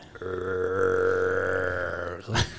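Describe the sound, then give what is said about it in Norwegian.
A person imitates the deep roar of a bear: one sustained, guttural growl lasting about two seconds, loud, ending in a short breathy exhale. “begynner jeg å høre eh, bjørn brøle”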